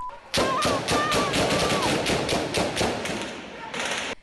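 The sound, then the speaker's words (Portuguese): Rapid bursts of gunfire crackle through the whole stretch, dense sharp cracks overlapping in fast volleys, loud throughout, with a faint whistling tone and muffled voices underneath. The gunfire is from a shootout in the Vila Cruzeiro community. “Moradores sem poder sair, o tiroteio na Vila Cruzeiro deixou as ruas da comunidade vazias.”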